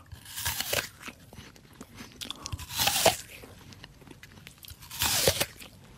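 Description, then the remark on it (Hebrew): Close, crisp crunching bites into a juicy apple in a game of guessing which bite is the apple, three loud bursts spaced a couple of seconds apart with softer chewing crackles between them; no one speaks. “זאת השלישית, והנה מגיעה לעיסה הרביעית, שימי לב.”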